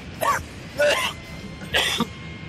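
Three harsh coughs, spaced unevenly over a couple of seconds, each a short raspy burst, from a person who choked on chicken liver.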